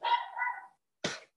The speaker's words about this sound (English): I apologize, you can hear my dog barking, can't you?